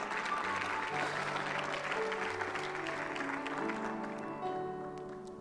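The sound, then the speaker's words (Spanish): An audience applauds loudly and steadily for several seconds, a dense wash of many hands clapping together that fades slightly toward the end, with faint voices mixed in. “Déselo muy fuerte a Él.”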